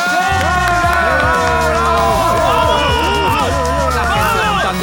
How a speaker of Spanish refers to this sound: Ahora es cuando todos gritamos, ¿vale? Da igual, aunque estéis en la oficina, en casa, escuchando este podcast, gritad con nosotros.